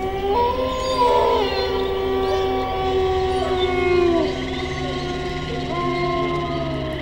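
A long, wavering wolf howl rises and sustains for several seconds, echoing across a hillside by a mountain village, with a second howl joining later, over a steady low background rumble; no one speaks.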